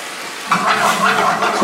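A splash of vodka sizzles and bubbles loudly in a hot pan of tomato sauce and sausage fat as the alcohol cooks off. A steady crackling hiss flares up suddenly and keeps frying, without any talking.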